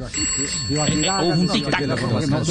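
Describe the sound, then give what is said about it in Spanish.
A telephone rings steadily, its electronic trill continuing for a couple of seconds while voices talk over it. “Suena, suena teléfono inglés, ¿qué hago?”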